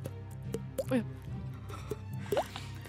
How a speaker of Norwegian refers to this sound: Og de hører en, en dryppelyd. Plopp.